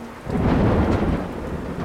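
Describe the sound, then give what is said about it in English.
A severe thunderstorm rages, with a deep rolling rumble of thunder over steady, heavy rain; the sound is loud, swelling early and holding throughout, with no voices. “They both knew the storm was too severe for him to leave.”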